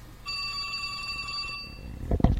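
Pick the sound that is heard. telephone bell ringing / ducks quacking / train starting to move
telephone bell ringing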